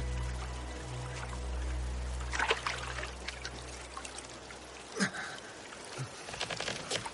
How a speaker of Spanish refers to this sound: John está arrodillado en el suelo ante una charca. Se echa agua en las heridas de la cara.